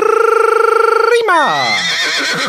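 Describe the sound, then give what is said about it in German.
A police horse whinnies loudly in fright at a cap being wildly waved back and forth, a long trembling high call that drops into lower, rougher breaths before fading out. No other sounds accompany it. “Die Pferde bekommen ja Angst, wenn du deine Mütze so wild hin und her schleuderst.”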